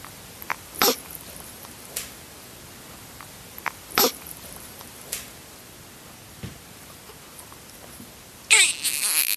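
A baby snuffles and snorts through its nose: a handful of short, breathy bursts at irregular intervals, mostly soft, ending with a louder, longer snort. No one speaks.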